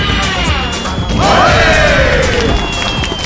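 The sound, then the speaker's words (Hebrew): Small meteorites streak down with descending whistling whooshes and land in a loud, rumbling barrage of crashes and impacts, filling the scene with dense, continuous noise, as a meteor burning up in the atmosphere crumbles into thousands of small meteorites that land on Earth. “וכך עשה את דרכו המטאדור לכדור הארץ, אך כשעבר באטמוספירה, נשרף והתפורר לאלפי מטאדורים קטנים שנחתו על כדור הארץ.”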